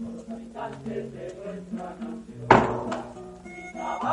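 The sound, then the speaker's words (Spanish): A man shuts an office door with a single solid thunk about midway through, standing out sharply over a steady bed of soft, tonal background music with no one talking. “Cuando llega arriba, divisa a un hombre de barbacana cerrando la puerta de un despacho y a continuación se acerca a él.”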